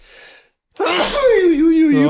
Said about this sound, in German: Gesundheit. Das tut mir jetzt aber leid. Das kann man rausschneiden, wenn das jetzt zu viel war hier.